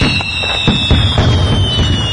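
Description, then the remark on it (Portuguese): A 'cangalha de fogo' fireworks rig explodes in the air in a rapid, crackling barrage of bursts, with repeated sharp pops and booms layered over a continuous fizzing hiss, loud and dense throughout, with no voices. “A cangalha de fogo será explodida aqui no ar.”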